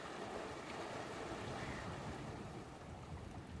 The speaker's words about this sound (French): le chant des vagues qui se brisent sur le rivage,